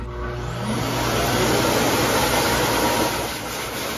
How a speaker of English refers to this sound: After the dog gets their color, they get a bath. Then, time for blow dry,